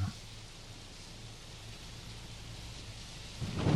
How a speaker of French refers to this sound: Avec le petit grésillement là. Ah j'adore. Ça c'était lancé. Avec la pluie qui tombe, mais c'est calme.